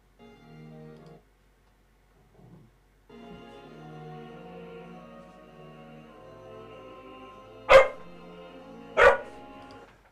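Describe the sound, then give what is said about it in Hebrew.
A dog barks twice, loud, with a short gap between the barks, over quiet background sung classical music that plays throughout. “הכלב שלי לא אוהב את זה.”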